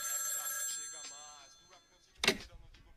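household object, telephone ringing

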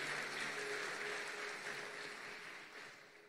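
crowd, audience applauding

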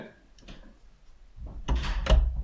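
household object, door opening or closing

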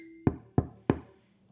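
impact, knocking on a door

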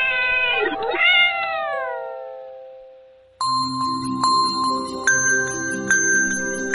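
animal, cat meowing

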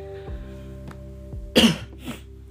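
human body sound, cough

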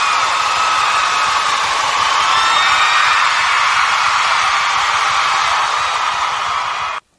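crowd, crowd applause and cheering

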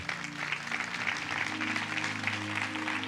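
crowd, audience applauding

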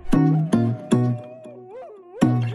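animal, dog barking

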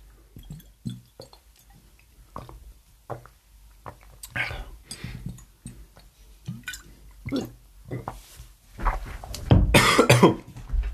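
human body sound, coughing

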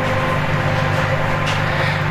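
household object, microwave oven running

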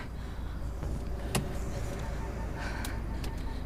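vehicle, getting into a car

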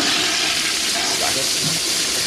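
sound effect, toilet flush sound effect

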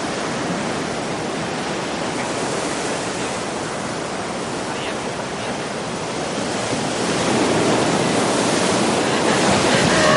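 nature, ocean waves

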